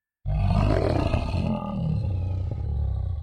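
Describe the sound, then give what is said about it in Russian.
A deep, rumbling wild animal roar starts abruptly and holds for about three seconds, loud, with a gravelly growling texture that wavers slightly in intensity. “Я уже собрался разворачиваться назад, думая, что пошел не в ту сторону, как вдруг услышал звериный рык.”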